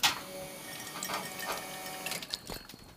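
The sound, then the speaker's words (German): An espresso machine pump hums steadily while water rushes and hisses through it as water is flushed to bring the temperature down from 92 to 89 degrees, continuous, with a few clicks and rattles near the end; no one speaks. “Wir könnten es beschleunigen, indem wir Wasser ablassen. Ja, können wir beschleunigen, machen wir auch.”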